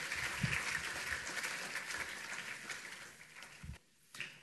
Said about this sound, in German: Danke für eure Mithilfe. Ihr könnt euch wieder setzen. Applaus ist das wert, denke ich.